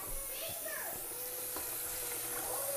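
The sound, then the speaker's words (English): Steady running water hisses continuously from a tap as someone gets the dishwasher ready, with faint clinks and voices in the background throughout. “You hear me getting the dishwasher ready, man.”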